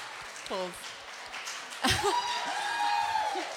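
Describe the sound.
An audience applauds steadily to welcome a man called up to the front, a dense wash of clapping that swells partway through, with a couple of voices calling out and speaking over it.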